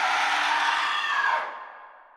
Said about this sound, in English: Her eyes would be soulless and dark, and her mumbling would turn into a blood-curdling scream.